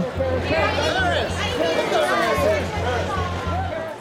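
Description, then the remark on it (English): Photographers around the red carpet at a Los Angeles Grammy Awards party in 2004 shout for Paris Hilton's attention as she arrives: a loud, continuous babble of overlapping voices, with several raised shouts rising above the clamor and a steady low hum beneath. “At a Los Angeles Grammy Awards party in 2004, photographers gathered around the red carpet, hungry for the it girl to arrive. And when she finally did, they erupted in shouts to get her attention.”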